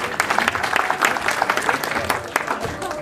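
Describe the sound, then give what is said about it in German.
A group of people applaud a correct answer in a small Ramadan quiz, a dense, continuous patter of applause with some voices mixed in underneath. “Super, ein Applaus bitte.”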